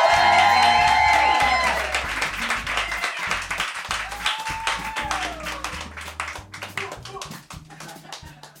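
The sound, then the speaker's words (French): An audience bursts into sustained, dense applause with scattered cheers, welcoming the evening's host on stage, the clapping loud and steady throughout, with music playing underneath at the start before the applause gradually thins toward the end. “Mesdames, Messieurs, veuillez faire un maximum de bruit pour l'hôte de la soirée,”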